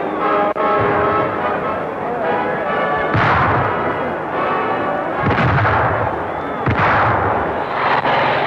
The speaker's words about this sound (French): Mouvement sporadique qui devait durer toute la journée, marqué par l'éclatement des grenades lacrymogènes et de courtes bagarres.